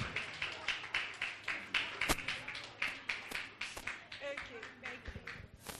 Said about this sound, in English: Clap, clap, clap, clap, clap. So you can. Yes, you. okay. Keep clapping.